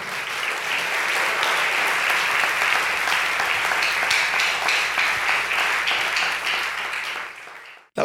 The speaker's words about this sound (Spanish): ¿Cuántos dicen amén? Dele fuerte ese aplauso al Señor.